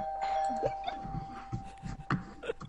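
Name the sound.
doorbell ding-dong chime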